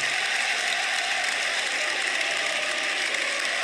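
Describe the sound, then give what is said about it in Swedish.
A huge stadium crowd roars and cheers continuously for footballer Domenico Criscito as he goes down onto the pitch at his last match, a dense, steady wall of noise with no breaks, sounding loud throughout. “Vet du hur det lät då när han då på sista matchen eh, fick eh, eh, gå ner på planen?”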